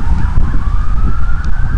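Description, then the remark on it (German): A siren from an emergency vehicle, like a fire engine or ambulance, wails steadily with a slowly rising tone over heavy low rumble and wind-like noise, sounding loud. “Feuerwehr, Krankenwagen, Hubschrauber, Wind uns wird Basketball gespielt.”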